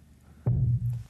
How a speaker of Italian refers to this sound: Questo è il rumore del tubo nella parete.